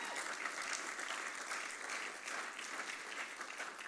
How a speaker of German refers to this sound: Gebt euch selber mal einen Applaus.